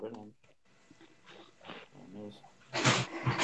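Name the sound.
dog making noises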